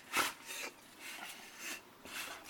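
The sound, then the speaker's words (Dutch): A dog makes a series of soft, breathy huffing noises, about five short bursts in steady rhythm, fairly faint with no talking. “Oh, de hond die oh,”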